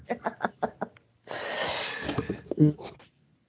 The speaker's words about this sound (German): Entschuldigung, ich musste wieder husten.